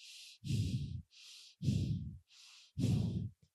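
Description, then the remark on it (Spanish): Someone imitates heavy breathing: three slow cycles, each a hissing inhale followed by a loud, raspy exhale, in a steady rhythm with no talking, imitating the breathing of someone beside them. “y veía la cama sumirse y sabes que también otra respiración.”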